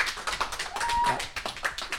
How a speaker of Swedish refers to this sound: Alltså jag tycker ja. att det är värt en applåd. Det är det definitivt.